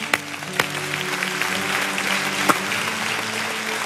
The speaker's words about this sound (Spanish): Reciben esta palabra, denle un fuerte aplauso Jesús.